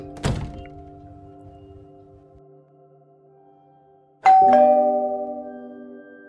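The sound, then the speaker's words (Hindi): A doorbell rung by a courier chimes twice: one bright ringing tone that lingers and fades, then after a pause a second, louder ding with a long sustained ring. No voices are heard. “थोड़ी देर बाद कुरियर वाला फिर बेल बजौलस”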